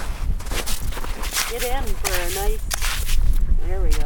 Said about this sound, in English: Great. We get to scoop the ice out. That was our mystery sound the other episode. Yes. Oh, yes. The scooping of the ice. So, it really sounds like that